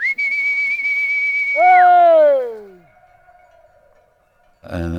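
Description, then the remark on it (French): A shepherd whistles to call his dogs: one long, steady, high-pitched note, then a loud call that slides downward in pitch, a quiet stretch, and a short noisy burst at the end. “berger ou un paysan appeler ses chers ou ses chiens.”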